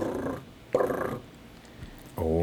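A voice imitates a rattlesnake's buzzing rattle the way it really sounds, vibrating loud and fast like an old Nokia phone rather than like a maraca, with three short, growly vibrating bursts separated by brief pauses, fairly loud.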